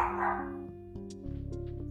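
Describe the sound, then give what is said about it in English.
A dog barks in a quick burst at the start, then gives a few short yips and whimpers over a steady low hum, not loud. “I'll be right back out right after this bark.”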